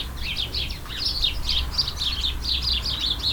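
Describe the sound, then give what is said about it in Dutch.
A steady stream of bright, overlapping chirps from several house sparrows, repeating rapidly throughout, with a low rumbling background hum underneath. “twee weken geleden hoorde je in de radiotuin over de huismus”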